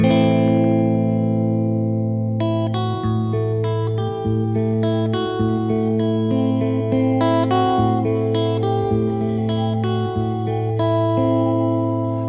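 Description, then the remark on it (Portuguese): A solo semi-acoustic guitar plays a sparse, ringing intro to a minimalist voice-and-guitar version of a Brazilian popular song, with sustained low notes under a slow sequence of plucked higher notes and no voice. “registra em versões minimalistas de voz e guitarra semiacústica.”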